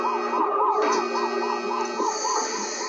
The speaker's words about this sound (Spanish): El viernes cuando sentí esa alarma de peligro, no fue algo que me cargó de adrenalina